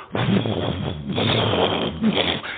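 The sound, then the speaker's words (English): Someone imitates a flash flood of a river coming down a canyon with huge boulders, a deep, gravelly rumbling made with the voice, a sustained throaty roar of tumbling boulders lasting a couple of seconds, loud. “It's the river coming down and it's boulders.”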